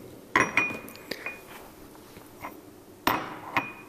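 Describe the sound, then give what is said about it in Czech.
A mortar and pestle, a version of a tool once common in pharmacies, taken from a pharmacist's case, clinks several times: sharp ringing taps in two clusters with a pause between, plus a few faint scrapes and knocks; no one speaks. “Teď to trošku cinklo, no, je to trošku modifikace něčeho, co bývalo v lékárnách běžné.”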